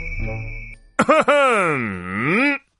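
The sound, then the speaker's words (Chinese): An exaggerated, voiced throat clearing by a bull terrier character lowering his police cap: two short gruff bursts followed by a long, loud, groaning tone that dips in pitch and rises again before cutting off, after a faint muffled lead-in. “牛头梗清清嗓子，压低了警帽。”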